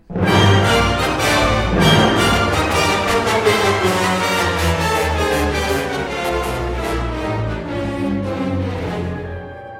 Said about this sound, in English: He hides in the she's... chapel all and there's like a musical theme for Angelotti. That, Should we listen to that yes, right this second? It's like it's a very fugitive, like theme.